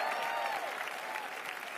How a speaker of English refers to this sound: That's right. Let's give these couples a big hand.